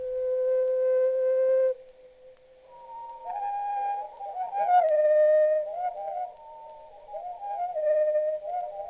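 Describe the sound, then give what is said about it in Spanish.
Bird song from the 1987 album by Hungarian scientist and musicologist, sounding like clear, mid-pitched whistled notes: one long steady tone, then a rising, warbling melody with slides and quick flutters, fairly loud, with no voices. “1987, … publica un disco llamado …, ….”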